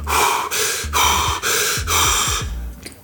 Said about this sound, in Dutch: Ja, het is echt zo hard ademen. Het zijn ademhalingsoefeningen.